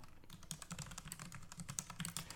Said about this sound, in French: Euh, extrême droite, Autriche, scandale, on va taper ça.